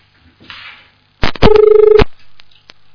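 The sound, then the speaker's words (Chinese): A telephone line disconnecting during a radio call-in: a sharp click, then a loud, steady mid-pitched electronic tone with a slight fluttering pulse that holds for about half a second and cuts off abruptly. “嗯，电话线断了。”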